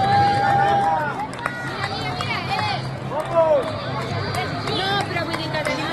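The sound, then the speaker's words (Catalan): Busy outdoor crowd noise at the finish of the Behobia–San Sebastián race in San Sebastián, recorded on Sunday 12 November, with overlapping voices, cheering and a constant loud hubbub, with occasional whistles and calls rising above the steady murmur. “Doncs mira, eh, forma part d'un vídeo que vaig gravar el diumenge 12 de novembre a l'arribada de la Biòbia a Sant Sebastià.”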